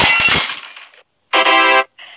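A glass jar with a little water in it is dropped and hits the floor, shattering with a loud crash and tinkling debris, followed by a bright ringing screech and a shorter one.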